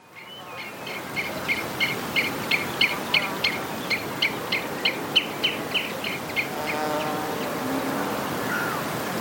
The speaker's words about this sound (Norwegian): Eller bor du nå kanskje i byen og savner å våkne opp til fuglekvitter fra den flotte skogen du kjenner igjen fra barndomshuset.